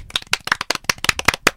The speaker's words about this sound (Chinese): 来鼓掌